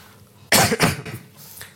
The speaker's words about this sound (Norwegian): Beklager hosten